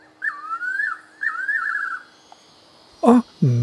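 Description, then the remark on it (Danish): Two warbling, whistled phrases of a South African nightjar call, each lasting under a second, fairly loud, followed by two short, harsher bursts of sound at the end. “De til tider eksotiske fuglelyde var med Arabia Goldwinged Crossbeak sydafrikansk natravn”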